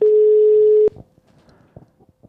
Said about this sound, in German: wir nehmen mal unser Telefon in die Hand und wählen mal Sebastians Nummer und schauen mal, ob er dran geht